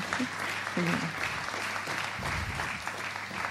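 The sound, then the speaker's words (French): Steady applause from an audience as two guests, the president of the Fondation pour la Nature et l'Homme and the CEO of Guerlain, walk up onto the stage: a dense wash of clapping that holds at an even loudness throughout, with brief bits of voices surfacing underneath. “continuer à les applaudir pendant qu'ils montent euh, sur scène”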